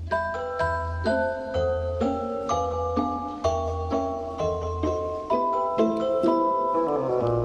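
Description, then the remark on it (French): A celesta, a small piano-like keyboard instrument whose keys work hammers, plays a light, bell-like melody in short plucked notes over a soft low accompaniment, steady and moderately loud, with no voices. “La mélodie de la fée dragée, là, dans le casse-noisette de Tchaïkovski, c'est du Célesta.”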